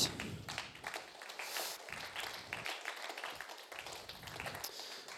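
A church audience at a baptism claps steadily for several seconds, a dense crackle of many hands with bright, irregular bursts and a few louder swells, and no voices over it.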